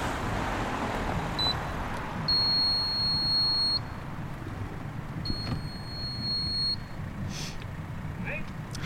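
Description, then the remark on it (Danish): An apartment entrance doorbell buzzer gives a brief blip, then two long, steady electronic buzzes of about a second and a half each, ringing over a constant rumble of street traffic. “Og ja, jeg er ved adressen nu, så jeg, øh, jeg ringer på.”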